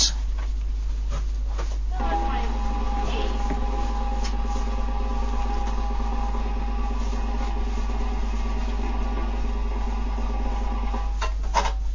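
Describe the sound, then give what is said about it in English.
A sustained drum roll rumbles steadily for about ten seconds at an even, moderate volume. It starts abruptly and stops cleanly near the end, with no voices over it. “Well, One, one thing we do have though is uh, we do have a drum roll.”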